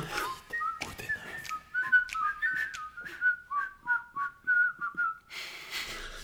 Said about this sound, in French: Sifflement, sifflement.